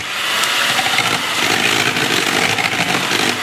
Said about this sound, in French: Ben là par exemple, tu vois, j'ai un batteur en train de faire de la crème fouettée.